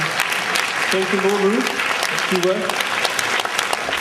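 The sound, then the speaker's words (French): Steady, dense applause from a crowd at an awards presentation, applauding the embassies, fills the whole stretch, loud, while a man briefly speaks a few words over it. “Ça s'applaudit, euh, les, les, ambassades.”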